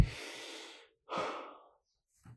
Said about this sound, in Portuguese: vocês não ligam, eu estou respirando porque agora é o meu momento, eu estou falando.